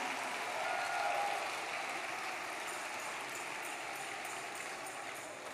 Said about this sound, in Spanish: Gloria a Dios. Dale el aplauso al Señor. Me largo de aquí. Dale el aplauso fuerte a Dios.